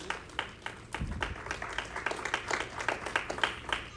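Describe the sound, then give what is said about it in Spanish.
A church audience applauding for Jesus, with dense overlapping claps forming a steady, bright patter that holds at an even, moderate level for several seconds. “Un aplauso a Jesús, por favor.”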